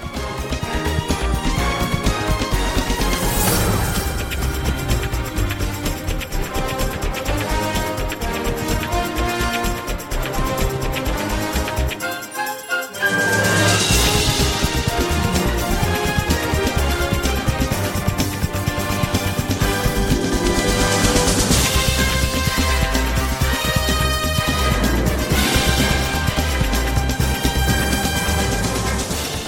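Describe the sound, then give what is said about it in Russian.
Loud, tense orchestral strings of a film soundtrack drive over a pounding, busy breakbeat drum rhythm, with the music cutting out for a split second midway before surging back at full intensity. No voices. “Напряженные струнные, мощный почти ситхаусовый ритм.”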